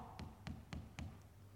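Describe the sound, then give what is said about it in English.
Four evenly spaced, fairly firm knocks on the innkeeper's door in a school Christmas nativity play, followed by a faint fifth tap, with a low steady hum underneath and no voices. “Mary and Joseph arrive at the innkeeper's door and they knock”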